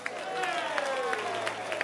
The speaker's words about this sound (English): Can you clap your hands for perfumes?